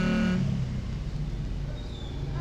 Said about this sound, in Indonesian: tolonglah suara motor inilah